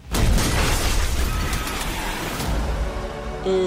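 A house blown up by a bomb in Fairfax in 1923: a powerful explosion booms out, followed by a sustained, deep rumbling roar that stays loud for several seconds before a brief tonal ringing emerges at the end. No one speaks.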